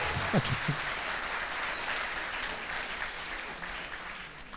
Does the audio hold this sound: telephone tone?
no